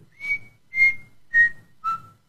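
Four soft, short notes from a person whistling quietly to himself, in a steady rhythm, each a little lower than the last, with faint low rumbling beneath; quiet, no talking.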